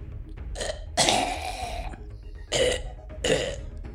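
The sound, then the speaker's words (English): A voice mimics a creature gulping and coughing after it was shot, opened its mouth and ate the ray, with Banaka sprayed in its mouth: a short burst, then a longer throaty gulp, followed by two more raspy coughs, all fairly loud. “and uh, you see it like coughing a little bit, but it seems to be pretty fine.”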